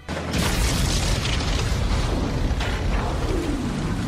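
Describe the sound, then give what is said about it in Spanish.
A loud explosion erupts from a fuel tank after a brief quiet start, then a heavy, rumbling roar that stays strong for several seconds, with no voices. “Con esa explosión tremenda, el resto que quedaban vivos y estaban ocultos”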